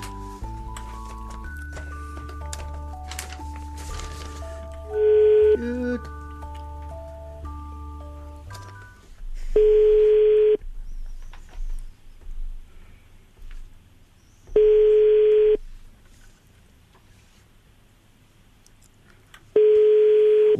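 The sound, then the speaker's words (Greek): A phone call being placed: a quick run of dialing tones, then steady ringback tones repeating at regular intervals, about four rings with silence between, and no one picking up. “Δεν το σηκώνουν εύκολα οι Μαρίε στο τηλέφωνο.”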